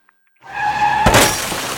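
A car's tires screech sharply, building for about half a second, then a loud crash hits with glass shattering and debris clattering as it fades. It is forceful, with no voices.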